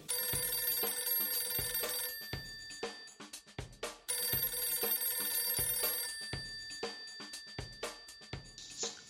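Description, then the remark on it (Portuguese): A phone rings on an outgoing call to a friend, a melodic, repeating electronic tune with steady tonal chimes and rhythmic beats, clear, with no one talking. “nós sempre ligamos para alguns amigos, algumas pessoas, para perguntar a opinião delas sobre o assunto do podcast”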